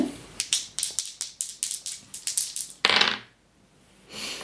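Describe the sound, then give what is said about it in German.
Dice rolled during a tabletop role-playing game clatter and tumble across a hard table in a quick, irregular run of sharp clicks, ending in a brief rattling scrape, then a softer rustle a moment later. Fairly loud. “So, und dann würfelst du nochmal.”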